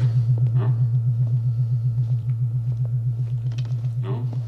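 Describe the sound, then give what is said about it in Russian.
A deep, steady electrical-sounding hum of unclear origin drones continuously with a faint regular pulsing, while a couple of soft, brief mid-range sounds surface briefly over it; a low-frequency film ambient hum accompanying the scenes in Deckard's apartment. “Если и не музыку, то, по крайней мере, некий шум, эмбиентный гул, будь то капли дождя, бьющие по мостовым Лос-Анджелеса, или низкочастотное гудение неясного происхождения, сопровождающее все сцены в квартире Декарда.”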